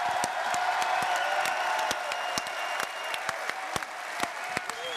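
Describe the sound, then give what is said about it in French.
A packed crowd of about 6,000 people in two full halls in Paris applauds steadily, dense clapping with a few sharper claps standing out. No one speaks, and the applause carries on at an even level throughout. “À Paris, tout va bien, nous sommes 6000, les deux salles sont combles, des gens font la queue dehors, il y a énormément d'ambiance et je vous propose qu'on applaudisse jusqu'à ce que Lyon nous entende.”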